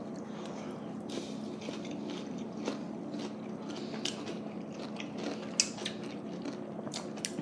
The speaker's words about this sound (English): Cheers. Cheers. You guys take a bite. Uh, take a bite. Mm, que rico.